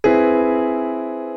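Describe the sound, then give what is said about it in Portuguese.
A single augmented major seventh chord in root position is struck once and left to ring, sustaining clear as it slowly fades, with no voices. “Se você for pegar ele na posição fundamental, ele soa desse jeito, assim.”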